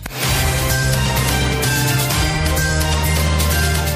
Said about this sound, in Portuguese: Estagiário, solta a vinheta.